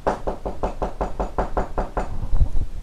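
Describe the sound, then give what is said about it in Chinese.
Many woodpeckers, called by a fairy in the Pinocchio story, peck at Pinocchio's nose: about a dozen sharp, evenly spaced wooden taps in a steady rhythm, fairly loud, ending with a couple of heavier, duller knocks. No talking. “之后，仙女叫来好多只的啄木鸟，啄着他的鼻子，”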